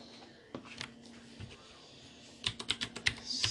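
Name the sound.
clicky computer keyboard typing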